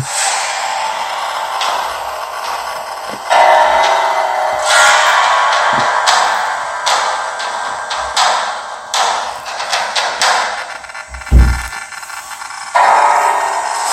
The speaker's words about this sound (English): Footsteps in the room. Much gasping, coughing, and heavy breathing throughout. It worsens.